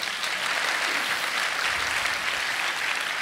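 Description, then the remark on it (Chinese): An audience claps their hands to give glory to God during a sermon, in steady, sustained applause, a dense wash of many overlapping claps holding at an even loudness throughout with no voices standing out. “我们再次拍手，让荣耀归给神。”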